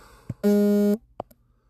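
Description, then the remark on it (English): A loud, steady electronic tone lasting about half a second, a phone notification beep, bracketed by a couple of brief faint clicks or taps, with no one talking. “Sorry, I forgot to put my phone silent.”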